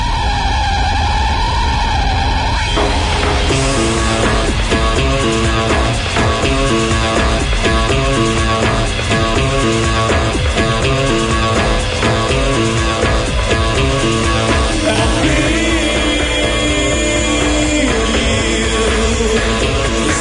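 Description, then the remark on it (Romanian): A loud rock-pop hit by an English band popular in the late 1980s and 1990s plays throughout, opening with a gritty, distorted screech before a heavy driving beat and dense layered instrumentation kick in, with no talking. “Tot o trupă englezească a făcut furori pe la finalul anilor 80, dar s-a ținut tare de tot în anii 90.”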